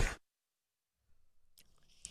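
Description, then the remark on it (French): A brief breathy burst, a short silence, then a quiet sip of a drink with soft wet mouth and swallowing sounds, no talking. “Je m'attendais à une réaction, mais je vais te laisser finir ton. Ma gorgée.”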